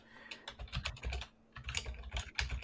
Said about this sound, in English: I hear somebody typing.